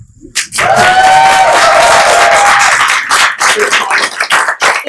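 A loud burst of crowd applause with a few cheers and whoops rising over steady clapping, then thinning into scattered claps toward the end.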